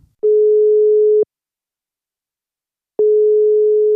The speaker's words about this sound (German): wir haben … angerufen und so hat es tönt, als er das Telefon abgenommen hat